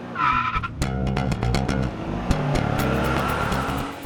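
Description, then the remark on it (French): A fire truck roars in with a sharp squeal of skidding tires at the start, followed by a loud, steady engine rumble that stays continuous, with no voices. “Certains ont imaginé qu'Albert arrivait avec son camion de pompiers vers une maison en feu”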